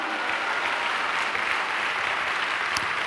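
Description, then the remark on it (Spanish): An audience applauds God in steady, sustained clapping, a dense wash of many hands that stays loud and even throughout, with no voices standing out. “Dele un fuerte aplauso a Dios, aleluya.”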